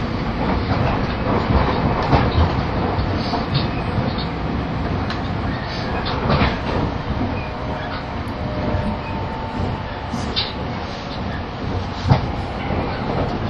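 Steady rumbling roar of a JR 683 series limited express train, the Shirasagi No. 14 from Toyama to Nagoya, running with dense low-frequency noise, scattered rattles and clicks from the car, and a brief sharp knock near the end; no one speaks.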